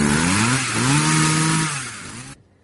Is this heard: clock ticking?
no